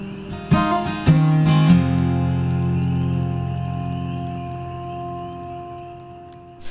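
The close of a song: a few struck notes ring out, then a full sustained chord hangs and slowly fades over several seconds, with no singing or talking.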